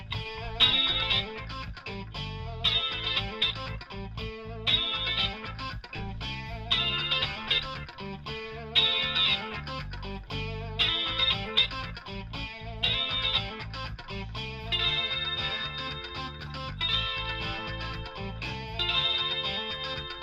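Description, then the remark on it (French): Layered electric guitars with distortion and chorus-like effects play a repeating riff over steady low pulses, loud and continuous for the whole stretch, with no talking. “Et on est reparti donc à la fin de l'intro du piano et on va écouter les différentes guitares qui composent euh, ce morceau.”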